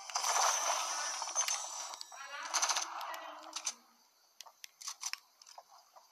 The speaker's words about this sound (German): Woher kommen die Schritte, Leute? Woher kommen die Schritte? Hier ist ja jemand in meinem Haus.